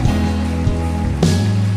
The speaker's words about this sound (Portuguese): Vamos aplaudir ao Senhor por essas vidas.